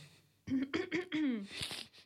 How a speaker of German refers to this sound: Erstmal wieder direkt räuspern.